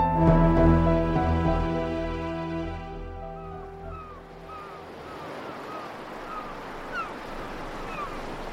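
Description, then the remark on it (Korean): A sustained musical tone fades out into a steady wash of waves breaking on the shore at a remote village by the sea in Gyeongseong, Hamgyong Province, with brief high bird calls scattered over the surf. No one speaks. “함경도 경성의 바닷가에 있는 한 외진 마을입니다.”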